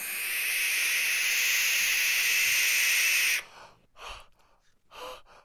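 A barn owl lets out one long, harsh, rasping screech for about three seconds, loud, and it cuts off abruptly. A few short breathy gasps follow in the quiet.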